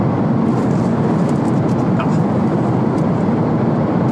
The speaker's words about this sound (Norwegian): men når man først er der og gjennomfører det, og litt sånn som nå er på vei hjem i bilen, så, eh, så er det verdt det til slutt.